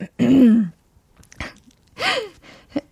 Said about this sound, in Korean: 기침이 나올 것 같네요.